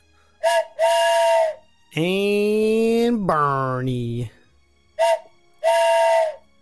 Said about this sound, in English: Man, I love that whistle sound. yes, I had to get extra special uh, toots, I guess, on those ones.